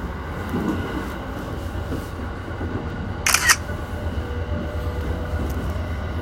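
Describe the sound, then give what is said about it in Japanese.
A quick camera shutter click, a sharp double snap, taking a photo of the inside of a train carriage, cuts through the steady low rumble of the moving train. “はいえじゃあこのね様子、えー、車内の様子をね、えー、パチリンチョと撮っときますんで。”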